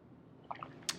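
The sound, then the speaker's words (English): A few quiet, wet slurping sounds from someone sipping a drink, small liquid clicks followed by two sharper sips at the end, with no talking. “Sip, sip, sip.”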